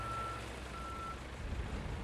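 Two long electronic reversing beeps from a backhoe sound over a low, steady engine rumble, with no one speaking.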